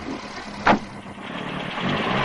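car driving away

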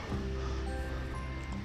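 car passing by

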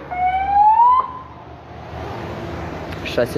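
police car siren passing

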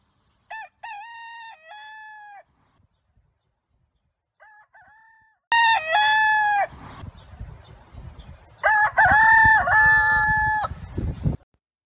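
rooster crowing

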